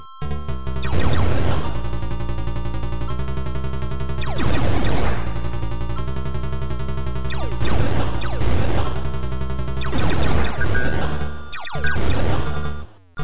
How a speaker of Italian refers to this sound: Sentite il ping acuto dei proiettili che vengono rimbalzati.